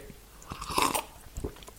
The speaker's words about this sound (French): Allez, une gorgée.